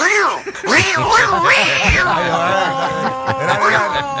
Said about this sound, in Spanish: Su naturaleza es miau, pero se crió con perro